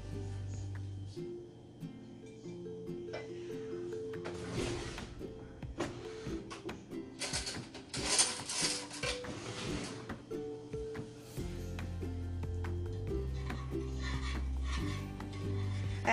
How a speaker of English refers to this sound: So I've got about a half cup of water. To that I'm adding a third of a cup of sugar and combining those in a tiny little saucepan and I'm going to stir that until it comes to a boil.